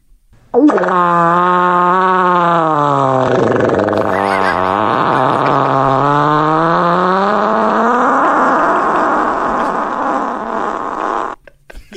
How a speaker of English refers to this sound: This is the a- ain't, ain't ever hear a fart hit third gear is the caption. Okay. Take a look.